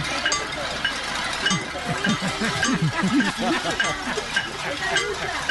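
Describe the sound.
Pots and pans are banged at home in a domestic cacerolazo during the quarantine, a loud, uneven clatter of sharp metallic clanks. Voices rise and fall beneath the din partway through.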